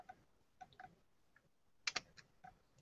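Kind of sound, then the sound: camera shutter click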